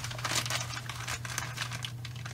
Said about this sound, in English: I will, however, carry with me uh, a bag like this, just a Ziploc bag.